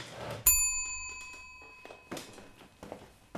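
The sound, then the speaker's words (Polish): A small bell is struck once to summon a servant, sharp and bright, its clear metallic tone ringing out and slowly fading over a couple of seconds amid faint rustling and room noise. “Pan dzwonił?”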